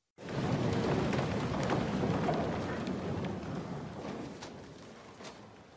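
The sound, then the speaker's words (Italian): Steady heavy rain pours down on an afternoon in a film scene of Dreyfus before the assembled army, a dense, continuous hiss with a low thunder-like rumble underneath and scattered sharper drips cutting through, fading slightly toward the end. “È Dreyfus che entra in campo lunghissimo con eh, l'intero esercito schierato, lo sfondo un eh, pomeriggio di pioggia”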